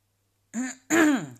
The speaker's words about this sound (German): Ich räuspere mich, weil ich selbst meiner Stimme nicht so ganz traue.